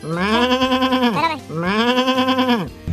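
Two long, wavering sheep bleats, each lasting just over a second with a quavering, nasal tone, separated by a short pause, loud and alone without any talking.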